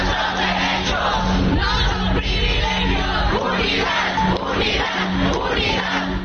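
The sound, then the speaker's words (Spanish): A large crowd of protesting workers from various areas shouts slogans together near the Chamber of Deputies, mostly calling for unity and a national strike: a loud, continuous roar of many voices yelling with no pauses, rising and falling in waves. “los trabajadores de distintas áreas se mantienen gritando algunas consignas, en su mayoría haciendo un llamado a la la unidad y convocando a un paro nacional.”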